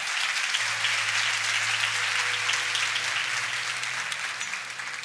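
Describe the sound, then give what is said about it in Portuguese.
Steady, dense applause from a crowd fills the whole stretch, a continuous bright wash of many hands clapping at an even loudness, with a faint low hum running underneath. “Isso merece uma salva de palmas, tá?”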